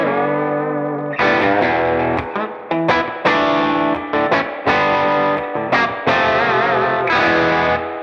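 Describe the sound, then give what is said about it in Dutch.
Electric guitar on the bridge pickup, played with heavy distortion and effects: loud sustained chords and short bursts in a halting rhythm, each change cutting in sharply, with no talking. “Maar Kijk, dit is, dit is bijvoorbeeld dit is de, de, de bridge pickup.”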